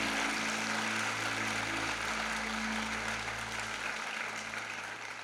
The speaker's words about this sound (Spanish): Te amamos y te bendecimos y te damos el mejor de los aplausos en el nombre de Jesús. Dale un fuerte aplauso al Espíritu Santo.